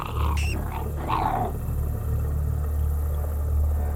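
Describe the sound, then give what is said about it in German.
A dog snarls and growls in a short, aggressive burst during the first second or so as it seizes a wild animal on a path and shakes it back and forth, then only a steady low rumble continues underneath. “Das eine war ein Hund.”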